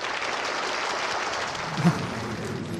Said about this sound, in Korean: 10년 만에 복직을 했어요. 다 같이 박수로 환영.